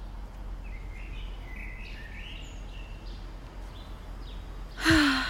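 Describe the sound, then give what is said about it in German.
Faint, scattered bird chirps over a steady outdoor hiss in sunshine, and a sudden breathy sigh cuts in right at the end. “Ist das nicht schön? Sonnenschein, Vogelzwitschern und frische Luft.”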